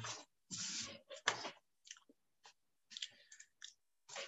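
Someone sipping water during a public reading: a few wet slurping bursts followed by scattered soft gulps and mouth clicks, with no talking.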